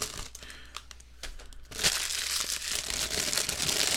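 Cellophane wrapping is cut and pulled off a game box with scissors, crackling and crinkling up close, starting with scattered sharp snaps and then swelling into a dense, continuous rustling that fills the second half without any talking.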